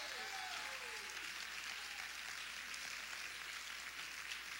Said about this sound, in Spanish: Yo creo que nuestro Señor Jesucristo merece un aplauso más fuerte que eso.